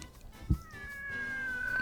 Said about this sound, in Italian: Ah, un gatto? Cercare un gatto.